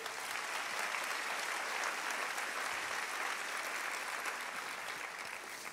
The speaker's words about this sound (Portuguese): Você pode aplaudir a vida dele?